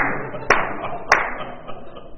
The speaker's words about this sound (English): I'll, I can't. I mean, I'll sit here and clap. Come on, everyone.